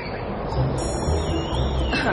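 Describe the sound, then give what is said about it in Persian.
Birds chirp faintly in thin, high tweets above a steady wash of outdoor background noise, with no voices present; the birds fly in the sky over Seymour Island in the Galápagos. “برای اینکه این کارت پستال کامل بشه به پرنده های زیبا هم احتیاج داریم که توی این آسمون در حال پرواز باشن”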